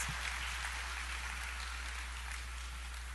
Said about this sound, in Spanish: Un aplauso, por favor. Gracias, chicos.